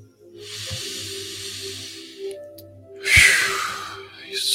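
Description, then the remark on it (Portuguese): A slow, deep breath drawn in with a soft, steady hiss during a guided breathing exercise, a brief pause, then a louder, rushing exhale, over a faint low hum. “em cada momento, inspirando e soltando.”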